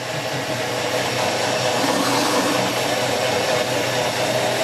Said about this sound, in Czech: Bude rachot. Bude rakot, budeme mixovat. Takže my jsme se nebáli to tam dát i horké, nakonec je to nerezová nádoba. Já tady u toho mixeru čím více mixuje, tím více ostří.